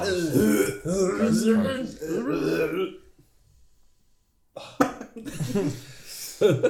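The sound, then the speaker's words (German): A person loudly imitates vomiting, with drawn-out gagging, retching groans, then a short silence followed by rough, raspy hacking and spluttering noises. “Euch oh, wird allen schlecht und ihr müsst euch übergeben. Ich übergebe.”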